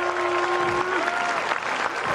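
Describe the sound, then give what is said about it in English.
Sustained, dense applause from a large tennis crowd in Sofia celebrating a player's ATP Tour hard-court title win, loud and steady throughout, with a few faint tonal notes drifting over the clapping. “As he soaks up the applause, he is a winning machine right now.”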